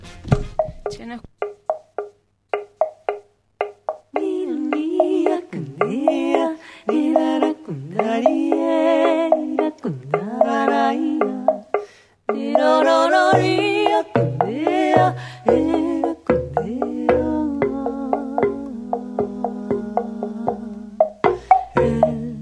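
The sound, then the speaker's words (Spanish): A folk song sung in Spanish: a plucked guitar opens alone, then a voice comes in singing sustained, wavering melodic lines over the steady picked accompaniment, clear throughout. “nos vamos a escuchar un temita musical antes de ir a la tanda”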